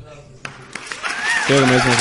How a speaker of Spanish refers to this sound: Muy bien, eso es pronunciación. Aplausos